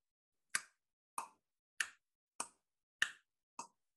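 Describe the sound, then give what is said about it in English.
Six crisp, evenly spaced ticks of a grandfather clock, each a sharp click with a brief woody ring, steady, with silence in between and no voices. “It's a familiar grandfather clock sound.”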